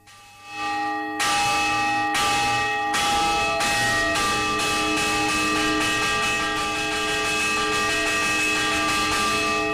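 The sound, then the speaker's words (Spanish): Church bells peal in rapid, overlapping strikes for a festival procession of the Virgin, their ringing tones stacking into a dense, continuous clang that stays loud throughout, with no voices. “En fiestas también suenan, por ejemplo, cuando se celebra la procesión de la Virgen repican a rebote lo que implica un sonido mucho más intenso como este.”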